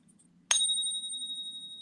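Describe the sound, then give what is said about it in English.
A silver coin is tapped once in a ping test and rings out with a bright, high, pure tone that sustains and slowly fades over a faint low background hum. “Um, but when you put it in the ping, so you always want to use multiple testing methods, right? So you can hear that.”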